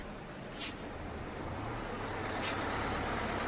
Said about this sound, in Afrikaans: Na ruk daag die bus uiteindelik op. Almal drom saam by die bus se deur.